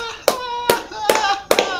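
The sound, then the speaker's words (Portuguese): Four sharp hand claps applauding a joke in a slow, steady rhythm, fairly loud, with a faint voiced sound lingering between them. “merece ser aplaudido de pé essa”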